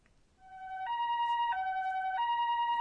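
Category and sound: vehicle, ambulance siren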